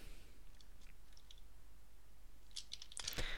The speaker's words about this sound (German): Hört ihr das? Ich hab getippt, Digga. Ja, was ist, chattest du?